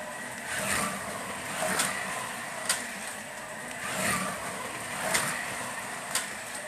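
Carrera slot cars race around a track, their small electric motors whining steadily and swelling in waves, with sharp clicks and rattles every second or so as they pass. No one speaks.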